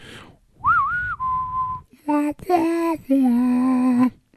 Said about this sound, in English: Sorry for anyone's eardrums or speakers. I just broke whistling into the mic. my bad.